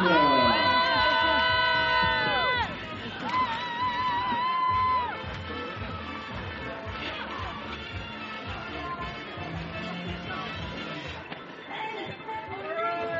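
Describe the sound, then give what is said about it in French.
A crowd cheers and applauds steadily for several seconds for the top three women on a World Cup podium, a dense wash of clapping and shouting that stays loud throughout, with brief tonal sounds rising out of it at the start. “Allez, vous avez applaudi une par une, leur présence au sélecteur, frères, lorsqu'elles sont sur le podium.”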